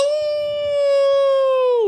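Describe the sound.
A single sustained, steady howl lasting about two seconds, sliding downward at the very end, voiced by a person imitating a wolf. It is loud, with no talking over it.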